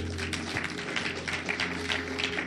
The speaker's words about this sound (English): Is somebody hearing me? If you believe what I'm saying, clap your hands.